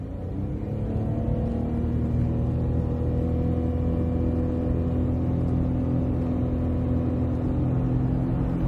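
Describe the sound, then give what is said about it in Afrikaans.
A Datsun Go 1.2 Lux CVT, a small car with a CVT automatic and a 57 kW three-cylinder 1.2 engine, pulls away hard under full throttle, its engine holding a loud, steady droning pitch rather than rising and falling through gears, with no talking. “Ek het die 1.2 Lux CVT gery en die CVT in die benaming verwys na 'n paal wisselende outomaties, soos duidelik hier gehoor kan word met 'n voluit wegtrek.”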